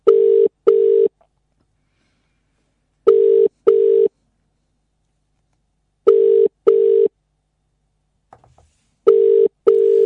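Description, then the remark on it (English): An outgoing phone call rings unanswered: four double-pulse ringback tones repeat steadily about every three seconds, clear, with silence between them and no voices. “Feeling these guys, these guys aren't going to answer.”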